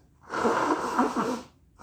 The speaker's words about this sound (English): I'll blow my nose for that.